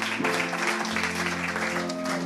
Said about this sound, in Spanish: quiero que lo recibamos con un fuerte aplauso.